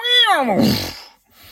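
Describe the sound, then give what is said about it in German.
A person vocally imitates R2-D2 from the Star Wars films getting an electric shock: one loud, wavering electronic-style wail that slides downward in pitch for about a second, then breaks off into a faint rasp. “Und mit im R2D2-Sound richtig so ein Sound, wie wenn R2D2 einen Elektroschock kriegt in den Star Wars Filmen.”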